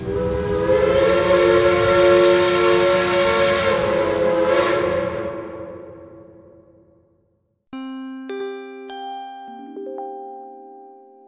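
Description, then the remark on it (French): A loud, sustained steam train whistle blows for several seconds and then fades out. After a short silence, a series of bright chime tones follows, like a station announcement signal. “Le train 1938 va partir pour la destination 2022.”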